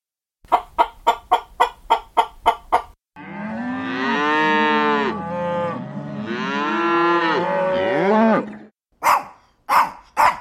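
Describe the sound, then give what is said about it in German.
Two long, drawn-out, loud cow moos, one right after the other. A quick series of short, sharp clucking sounds comes before them, and a few more follow. “Kühe muhen.”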